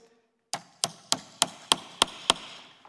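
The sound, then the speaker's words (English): A third nail is hammered into a picture with seven sharp, bright strikes at a quick, steady beat, each blow ringing briefly before the next. No one speaks. “And I love if you uh, nail a third if you hammer a third nail in this, this, this picture, you know what happens?”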